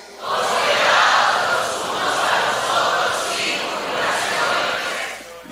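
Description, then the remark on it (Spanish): An audience shouts together at full volume after a count of three: one sustained, many-voiced roar lasting about five seconds, swelling and dipping slightly before cutting off. “Entonces necesito una voz fuerte de todos.”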